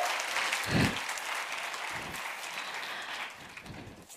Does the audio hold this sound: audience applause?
yes